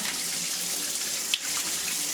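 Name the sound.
shower water running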